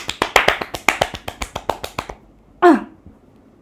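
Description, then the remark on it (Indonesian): A quick run of about sixteen sharp hand claps at a steady, brisk pace, fading slightly, then a short voiced exclamation after a brief pause. “salut deh tepuk tangan dulu”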